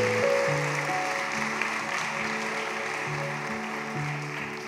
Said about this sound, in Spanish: Démosles otro fuerte aplauso de bienvenida.